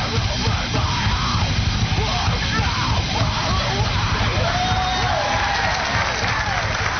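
A heavy band song plays loud and dense throughout, with harsh shouted vocals yelling over a wall of distorted noise; the sound is slightly muffled, like a lo-fi playback.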